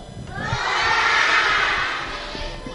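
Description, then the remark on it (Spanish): A group of second-grade schoolchildren shouts a greeting together to listeners of their broadcast in one loud, sustained burst of high voices that swells and then fades over a few seconds. “Nos están escuchando a través de streaming, desde casa, el trabajo, coches, ¿por qué no saludamos a todos a quienes nos están oyendo? A ver todos.”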